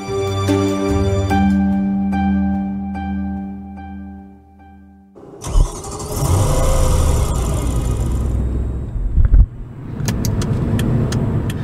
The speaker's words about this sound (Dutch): Ik zit in de auto ben op weg naar IJzendijken in Zeeuws-Vlaanderen.